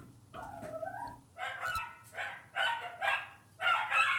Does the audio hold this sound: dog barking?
yes